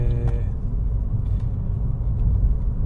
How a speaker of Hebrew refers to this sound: אוי, אופנוען. אה, תיסע בזהירות, מה קורה לך? אתה עושה תנועות משוגעות.